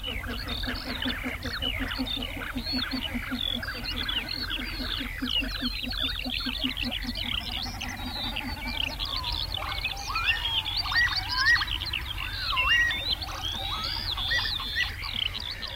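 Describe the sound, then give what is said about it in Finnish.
Northern lapwings in their spring courtship display flight give wheezy, slurred display calls over and over, rising and falling in pitch. A low, rhythmic throbbing from their rounded wings runs beneath them during the first half. “Viikon luontoääni: Töyhtöhyyppä”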